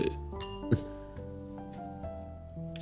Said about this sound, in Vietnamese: thì hai anh em mình cụng ly cho cái sự uh, có điểm chung này đúng không ạ?